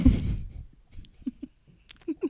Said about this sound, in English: Ooh, I can hear my upstairs neighbor stomping around,